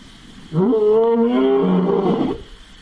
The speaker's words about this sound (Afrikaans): Die brul van Silwester, eens weggeloop leeu uit die Karoo Nasionale Park, nou koning van die veld in die Kuzuko Wildreservaat.